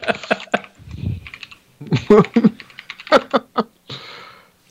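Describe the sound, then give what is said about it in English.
Rapid clacking of keys on a computer keyboard, bursts of quick irregular taps with short pauses between flurries. “Just let you know, I, I caught you clacking your keyboard.”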